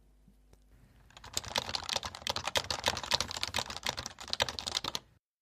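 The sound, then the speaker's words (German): Steady, fast typing on a keyboard with Topre rubber-dome switches, a dense run of soft, muffled key thocks for about four seconds, with no voices, then stopping abruptly. “wie sich Top-Race-Switches beim Tippen anfühlen. Das klingt dann ungefähr so.”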